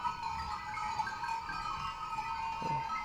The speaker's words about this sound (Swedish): Jag, jag upplever ju att han skrämmer bort dem. Ja. Jag tycker att det här är... Eh, jag hör rädslan i fåren. Men skriker inte får om de blir rädda tror du? De blir nervösa.